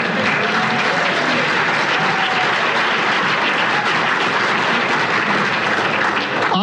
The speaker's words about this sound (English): How many of you saw what happened this week with the Southwest Airlines pilots? Can we give those guys a round of applause?